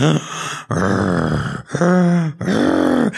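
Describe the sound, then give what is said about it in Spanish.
A man's voice imitates a butler sleeping in his bedroom with his head on the pillow, snoring: four long, loud, throaty snores in a steady rhythm, low and rasping with a rising and falling pitch, separated by brief pauses and no other talk. “Él está con su cabeza en la almohada y tal vez está roncando.”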